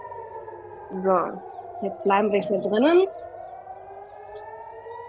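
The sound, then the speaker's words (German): A steady air raid warning siren drones from outside, muffled and continuous, while a person speaks briefly indoors over its sustained wail. “Du hörst noch draußen die Sirene.”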